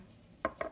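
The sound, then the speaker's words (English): A short sneeze in two quick, breathy bursts, the second slightly longer, fairly loud against a quiet background with no talking. “bless you, beautiful warrior.”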